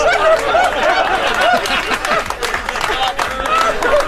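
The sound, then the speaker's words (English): About 50 to 60 men on an outdoor patio react loudly as a dog attacks a man, recorded on a cell phone video: a steady roar of overlapping voices, whoops, laughter and scattered clapping throughout, continuous. “So there's probably 50, 60 guys on the outside patio as this is happening.”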